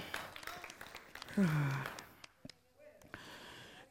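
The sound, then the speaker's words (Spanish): During a Christian sermon, a crowd claps together in a dense burst that fades after a couple of seconds, with a voice calling out over it, leaving a quieter room with a few scattered claps. “Dale un fuerte aplauso, vamos.”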